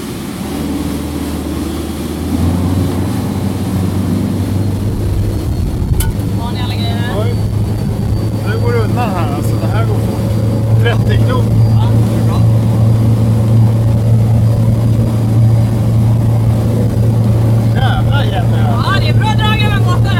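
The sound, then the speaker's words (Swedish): Water rushes and splashes steadily along the hull of an X-Shore electric boat moving forward from Djurgården in Stockholm on a windless early-summer day in June, over a constant low drone, with people talking now and then over it. “Det är vindstilla dessutom, så det enda vi hör här det är bogsvallet.”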